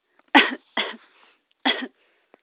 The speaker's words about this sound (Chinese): 他用力吸了一口气，然后还是咳嗽了起来。